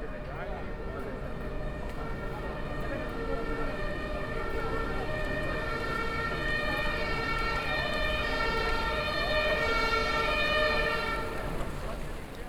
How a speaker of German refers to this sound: Der Krankenwagen bringt mich in die Notfallambulanz.